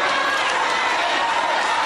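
crowd, crowd yelling

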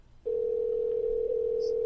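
signal or alarm, phone call ringing tone

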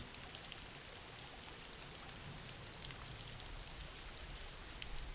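nature, background rain

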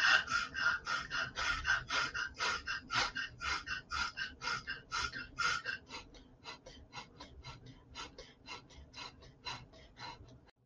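human body sound, deep breathing

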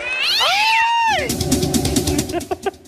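animal, cat meowing

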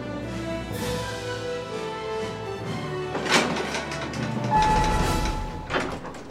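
machine, elevator running

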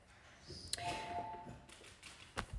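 household object, doorbell ringing

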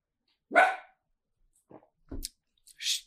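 animal, small dog barking

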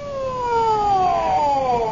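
vehicle, ambulance siren

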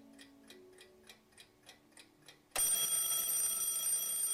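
household object, alarm clock ringing

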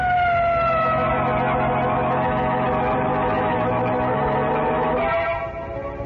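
vehicle, police siren

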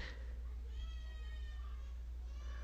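human body sound, baby crying

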